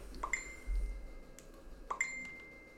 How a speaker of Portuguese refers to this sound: Para com essa notificação, meu. Vamos falar sobre isso, não é preciso mais notificações para notificar que vamos falar sobre notificações.